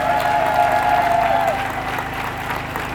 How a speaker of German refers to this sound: Applaus, komm, kommt, Leute!